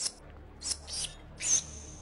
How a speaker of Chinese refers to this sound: 这回老小虎也听清楚了，这是老鼠在叫啊！